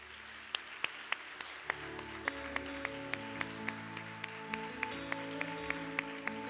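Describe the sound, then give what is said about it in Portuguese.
Steady, rhythmic hand clapping at a church service as the audience applauds the Lord, roughly three sharp claps per second, keeping time over sustained musical tones. No one speaks. “Deus te abençoe, aplauda ao Senhor.”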